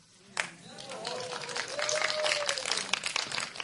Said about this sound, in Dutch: Ja, klap maar hard, anders ga ik nog een keer hetzelfde verhaal doen.